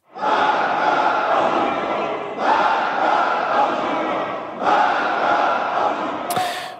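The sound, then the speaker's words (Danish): Up to 100 members of the Iranian parliament chant 'death to America' loudly in unison in the parliament building, three rhythmic shouted phrases repeating in quick succession, the massed voices making a dense, roaring sound that ends abruptly. “Her råber medlemmer af det iranske parlament død over Amerika.”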